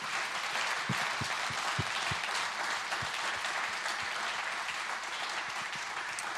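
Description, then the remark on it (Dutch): An audience in a hall claps steadily for several seconds, a dense, even wash of many hands with no one speaking over it, holding at a fairly constant level throughout, thanking the people who pray for their persistent prayer. “Maar zullen we even de bidders in onze zaal, zullen we die even bedanken met een applaus voor het volhardende gebed.”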